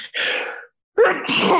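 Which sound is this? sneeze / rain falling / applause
sneeze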